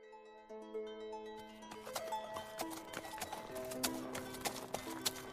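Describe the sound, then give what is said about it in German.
Horse hooves clip-clop in a steady, brisk rhythm, fairly loud, as one horse carries two riders, starting after a second or so over sustained tonal music that plays throughout. No one speaks. “Beide auf einem Pferd gaben ein illustres Bild ab.”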